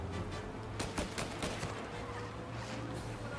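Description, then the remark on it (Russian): A quick volley of video game gunfire shot through a car's windshield, several sharp cracks in close succession over a steady low engine rumble, with no one speaking. “Стреляет он через лобовое стекло, что ли?”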